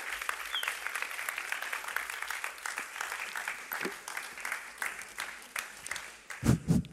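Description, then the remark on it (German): Steady audience applause, given to welcome a guest for a short interview, fills the whole stretch, a dense patter of many hands clapping at moderate volume, with a few louder thumps near the end. “Lass uns einen herzlichen Applaus geben”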